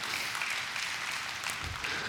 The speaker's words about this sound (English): Turn to your neighbor and tell him you didn't clap loud enough. Come on, come on, you got to clap louder than that. You, come on, you got to clap louder than that.